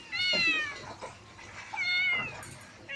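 Two drawn-out cat meows, fairly loud, with a rising-falling harmonic tone, separated by a short pause, and a brief higher squeak near the end.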